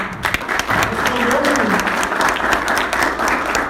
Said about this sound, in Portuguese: Salva de palmas aí.